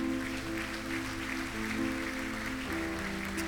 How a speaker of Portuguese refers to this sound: Se você viu alguém fazer essa oração, dá um abraço nessa pessoa enquanto a gente aplaude o Senhor mais uma vez, igreja, porque Deus é grande.